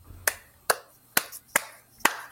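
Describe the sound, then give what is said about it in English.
Five slow, evenly spaced hand claps from one person, sharp, with quiet pauses between each clap and no talking. “That is, round, that of, was, round of applause.”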